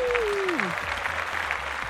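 Steady, dense applause for a guest being introduced on a broadcast programme continues throughout, with a falling-pitch vocal whoop over the first part before the clapping carries on alone at an even level.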